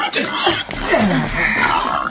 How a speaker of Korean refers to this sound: 어, 멧돼지. 아직 어려. 아, 새끼인데 뒷다리에 엮고 매달고 밭에서 발견됐대.